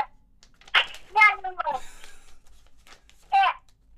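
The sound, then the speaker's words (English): A young child babbles in short, high-pitched bursts with pauses between them, moderately loud, with no adult talking over it. “can hear the little um”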